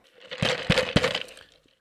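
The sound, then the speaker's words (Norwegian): Three quick, bright taps of a utensil clinking against a glass to call for a speech, evenly spaced over about a second with a short ringing tail and no voices. “Klirre med glasset.”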